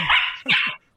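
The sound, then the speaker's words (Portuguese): A dog barks twice in quick succession, two loud, rough barks with a brief gap between them, then silence. No one speaks. “Esse é o cachorro mais bonzinho do mundo.”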